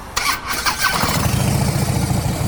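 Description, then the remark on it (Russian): A motorcycle engine cranks and fires up, then settles into a loud, deep, throbbing rumble through aftermarket Screamin' Eagle exhaust pipes, with no talking. “Ну, трубы, звук, скримен игл, классика, музыка.”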